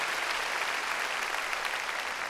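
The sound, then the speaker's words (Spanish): A large group claps loudly and steadily, a dense wash of overlapping hand claps that fills the space without pause, with no voices standing out, as a church audience claps in praise of the Lord. “Démosle palmas fuertes a nuestro Señor, gloria a Dios, gloria al Señor.”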